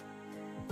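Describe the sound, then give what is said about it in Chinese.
A voice imitates the bleat of a snow-white young goat, a short, drawn-out, nasal tone with steady harmonics that swells louder and rises at the end, lasting under a second. “一只雪白雪白的小山羊，奶里奶气的叫着”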